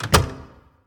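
A door shuts with one solid thunk, preceded by a brief soft click. The sound fades out within about half a second, and nobody speaks.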